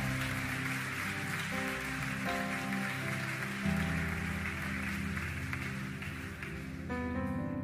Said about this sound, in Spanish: Alguien que le pueda dar un fuerte aplauso al rey. Vamos a dárselo fuerte.